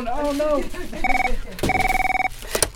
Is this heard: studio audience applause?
no